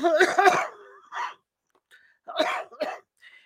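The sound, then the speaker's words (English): A dry cough repeats in several short, harsh bursts, two quick ones together, then scattered single hacks with brief quiet gaps between them. “My cough is a dry cough”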